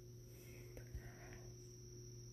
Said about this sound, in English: So now, such a time as this is here, and it's beautiful outside. I hear birds chirping. I hear crickets. I hear the wind blowing through the trees. And it's just awesome.